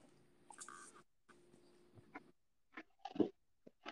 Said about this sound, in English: Hold on, my bad. I'm swallowing something.